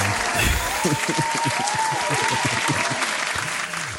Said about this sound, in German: Oh yeah, Applaus. Kannst du einen Applaus reinschneiden? Schneiden Applaus rein.